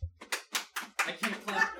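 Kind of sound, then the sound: crowd, audience round of applause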